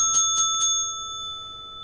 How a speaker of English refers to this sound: ring the bell for the DWI podcast.